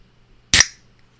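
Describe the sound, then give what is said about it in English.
A can of ginger root beer cracks open with one sharp, bright pop, followed by a short hiss of fizz that fades within a fraction of a second. There is no talking, just quiet before and after. “Oh, that can was ready to open. It's fizzing too.”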